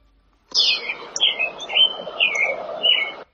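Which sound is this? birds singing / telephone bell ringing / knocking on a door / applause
birds singing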